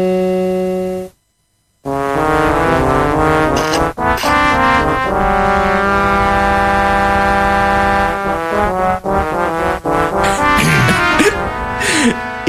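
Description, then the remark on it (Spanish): A new remixed version of the Resident Evil mansion basement music plays loudly on its own, with droning, sustained synth chords and shifting melodic notes, briefly cutting out to silence right after it begins. “Claro que os suena, porque esta es una versión, una nueva versión de, Resident Evil.”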